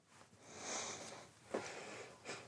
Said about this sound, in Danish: Øh, og det er altså, hvis man gnider på, på stænglen og snuser til sine fingre, det er den der sødmefulde, du skal gnide lidt til, men det er altså værd at opleve. Bare give den en ordentlig tur.